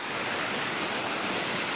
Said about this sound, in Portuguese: Você pode ver uma cachoeira, pode ver as correntes, o barulho, o som, mas ela também passa.